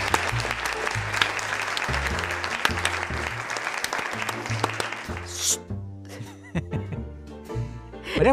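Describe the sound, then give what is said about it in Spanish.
Dense, loud applause from a crowd, clapping steadily for about five seconds over a low, pulsing backing of music, then cutting off as short tonal musical notes take over. “Esto amerita un aplauso de la barra.”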